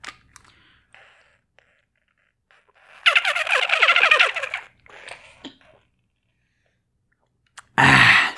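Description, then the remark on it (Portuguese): A plastic Smart Bottle water bottle, squeezed while the speaker drinks water, squeaks in a rapid run of high, chirping squeals that resemble a dolphin's calls, then a shorter squeak follows, ending with a brief loud rush of noise. “Sim, a minha garrafa consegue fazer o som de golfinho.”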